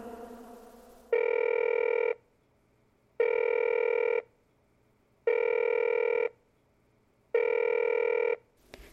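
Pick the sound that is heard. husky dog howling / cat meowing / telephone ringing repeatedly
telephone ringing repeatedly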